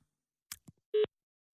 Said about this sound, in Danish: Nummeret, du ringer til, er optaget. Ej, for helvede. Nu kommer jeg ikke engang komme i kontakt med Dansk Folkeparti Nej, det er jo fordi, at telefonen er optaget nu, det er ikke...